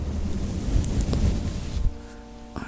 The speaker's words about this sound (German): Brushing, auch oh, sehr beliebt. Da fährt man mit einem Pinsel über das Mikrofon.